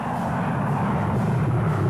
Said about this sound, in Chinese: 不光撞了车，这阅兵式上还有什么呢？飞机人字形飞越广场上空，